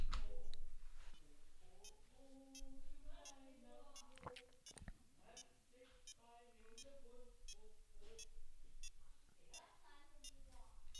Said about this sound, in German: Ja, jetzt piept das munter vor sich hin. Ich habe es jetzt mal ins Mikrofon gehalten.